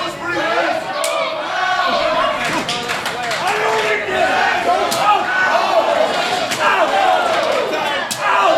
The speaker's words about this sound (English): Those are big chops, you know, getting handed out tonight. Huge chop right across the chest of Pat Powers.